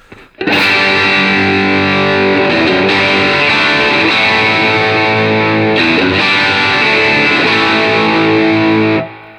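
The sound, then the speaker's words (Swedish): A guitarist standing on stage plays a loud, sustained electric guitar chord that rings out with a thick, distorted, spacious tone, briefly dipping and restriking around the middle before cutting off cleanly. No voices. “gitarristen, du, du ska inte stå inne i badrummet och spela, du ska stå ute på scenen med oss.”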